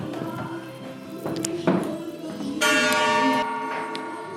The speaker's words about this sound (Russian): А, и я даю гонг.